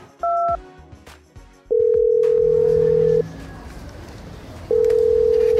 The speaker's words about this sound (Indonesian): Fitria mengambil ponselnya menelpon Al.